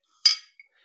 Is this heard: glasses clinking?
yes